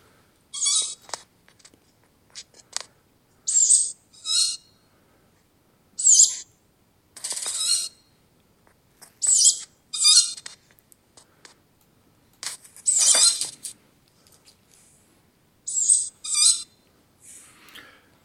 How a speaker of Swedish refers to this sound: Ja, det var inte en råtta som det var inte, nej, det, det hörde jag nog nu. Det, det, var en inspelning gjord väldigt nära av kattuggleungar som tigger. – Kattuggleungar? Ja, som tigger.